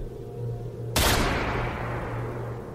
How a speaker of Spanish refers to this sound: Un disparo se escuchó a lo lejos, en lo profundo del bosque.